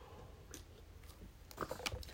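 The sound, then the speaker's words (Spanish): A preacher takes a quick sip of water: a few soft, wet mouth clicks and a swallow over quiet background, with no one speaking. “Y vamos a tomarle un traguito ahora en el nombre de Jesús.”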